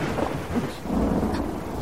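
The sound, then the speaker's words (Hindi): A sudden thunderstorm, arriving when there had been no wind, rumbles steadily, low thunder rolling beneath a dense wash of falling rain, loud with no voices. “अब ये क्या यार तूफान कहाँ से आ गया अभी तक तो हवा भी नहीं चल रही थी”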